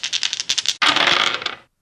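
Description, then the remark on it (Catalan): Dice rattle briefly with quick clicks, then tumble across a hard surface in a bright, dense clatter lasting nearly a second before stopping, rolled for a perception check needing 4 or more. No one speaks. “Per continuar escoltant la partida, fes una tirada de percepció de 4 o més.”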